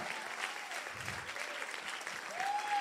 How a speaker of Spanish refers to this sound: Tú deberías estar aplaudiéndole al Señor ahora mismo.